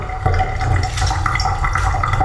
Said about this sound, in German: Also das Wasser rausmachen werde, aber dazu müssen die Beutel erstmal auch äh, etwas kühl sein, sonst verbrenne ich mir die Finger. So. Dann raus mit dem Wasser.